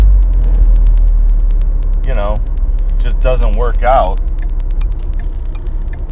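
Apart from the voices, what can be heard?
car driving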